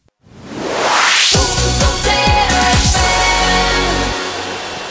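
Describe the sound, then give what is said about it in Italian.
A short radio music break: a rising whoosh sweeps up into a loud burst of music with punchy drum hits and sustained chords, then fades slightly at the end. No one speaks. “Rimanete con noi, pausa musicale, siamo subito da voi.”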